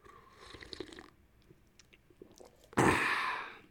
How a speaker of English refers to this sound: having a sip of tea right now, some mint tea.